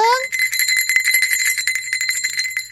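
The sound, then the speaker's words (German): Small hand bells jingle rapidly and continuously for a few seconds, a bright tinkling cluster, shaken as an altar server's bells during holy Mass to signal that the most important moment is coming. “die läuten dann mit den Glocken vorher, damit alle aufwachen”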